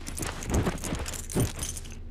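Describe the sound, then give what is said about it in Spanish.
Keys jingle and clink amid rustling as someone rummages through a bag holding an ID, a USB stick and keys, with two soft thumps of items being shifted around. “Ok, esta es un ID, Un USB y unas llaves. Sí, unas llaves.”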